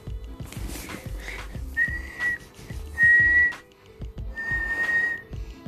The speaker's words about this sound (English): A distant whistle pierced the calm.